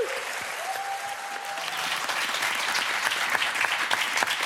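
Sustained applause from a large audience at the Molière awards ceremony, dense and steady clapping that swells slightly, with a brief whistle-like tone early on and no voices standing out.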